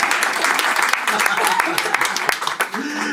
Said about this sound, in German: Sie dürfen klatschen, das macht nichts.